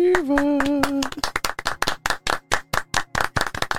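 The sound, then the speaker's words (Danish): A small round of light, polite golf clapping, with a couple of dozen crisp claps in a loose steady rhythm. A brief sustained voice sound overlaps the first second. “Et lille golfklap hører og bør der også gives i en sådan anledning.”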